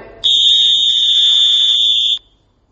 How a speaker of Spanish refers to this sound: un silbato, un silbato de la policía. El no saber distinguir ese sonido puede traer consecuencias a nuestra vida.